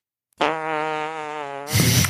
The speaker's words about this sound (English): And we have something related to farts.